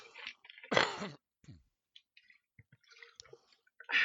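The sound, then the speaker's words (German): Someone drinking water: a few wet slurps and gulps, a breathy sigh, then scattered small mouth clicks and liquid squishes before a final slurp. No speech. “Ah, das ist ein gutes Wasser.”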